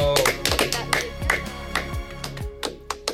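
Hands clapping in a quick, uneven patter of sharp slaps over about three seconds, with a low humming tone running underneath and no talking.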